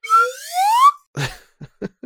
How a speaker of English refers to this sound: I'm making all my decisions with slide whistle sounds tonight, so you have to discern.